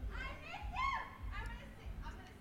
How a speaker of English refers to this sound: as everyone can hear, I'm sure, we live in downtown Mankato. Right yeah. outside our window, we have uh, screaming college aged people. Um, so just bear with us there.